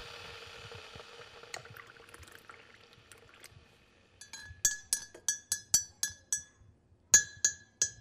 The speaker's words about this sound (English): All right, let's take a little tea break. I'm going to get the kettle on, and you can meet me right back here to go over the highlights